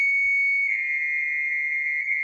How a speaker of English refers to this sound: I'm sorry. I'm hearing like a server. What is that? Give me a second. That is bizarre. Okay, this is hilarious. You know what it was? It was Siri calling home on speakerphone.